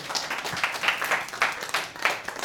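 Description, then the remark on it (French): An audience applauds the presenters, with a dense, continuous patter of many hands clapping at a steady, moderate level and small swells throughout. No one speaks over it. “Les applaudir peut-être quand”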